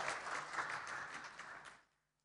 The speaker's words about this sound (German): Dankeschön. Applaus den Technikern.